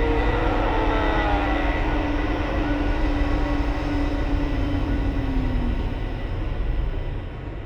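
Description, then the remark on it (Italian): A train rolls along with a heavy, continuous roar and clatter, a long metallic squeal gliding slowly downward through it, the loud rumble easing slightly at the very end. No voices. “Marco non si accorse del convoglio che avanzava dietro di lui.”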